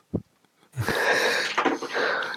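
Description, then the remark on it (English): A man gives a brief low grunt, then a loud, drawn-out burp that rumbles and rasps for well over a second, with no talking. “Everyone just went silent, and then he just blinked up green with this massive burp.”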